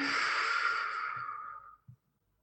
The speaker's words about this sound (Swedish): Här ska vi ta ett djupt skönt andetag. Andas in. Och andas ut sakta, känn hur luften lämnar.